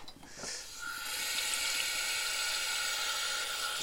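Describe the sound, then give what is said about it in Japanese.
Water runs steadily from a tap into a measuring cup, a continuous hissing splash that starts after a brief knock and holds at an even level with no talking. The water is measured as 300 ml plus 200 ml to make 500 ml for boiling. “うちねこの計量カップみたいなやつがね 500ml 一発で測れるやつないんで、ね、ないので300200で500にしますこれを沸騰させますね”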